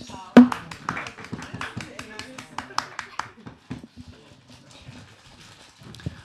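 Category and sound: crowd, group applauding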